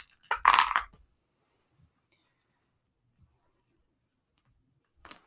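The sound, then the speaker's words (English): A brief clattering rattle of dice tossed into a container, dense for under a second, then near silence with a few faint clicks and a short rattle again at the end. “I'm going to throw my dice into this thing.”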